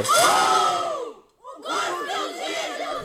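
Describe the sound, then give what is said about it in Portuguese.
A group of young students yells loudly together in a chant-like bellow during university hazing (praxe), breaking off for a brief pause before a second round of ragged shouting rises up again. “Agora, o que me dá raiva são estes berros que as pessoas da praxe adoram, que são os berros mais nojentos que eu já ouvi e são berros.”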